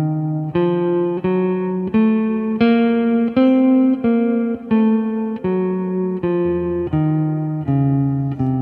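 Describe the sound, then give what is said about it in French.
A guitar plays a steady sequence of about a dozen single notes, each ringing into the next, stepping through the intervals of a half-diminished (m7b5) chord, clear with no voices. “Donc faites bien votre accord et écoutez bien les intervalles qui composent.”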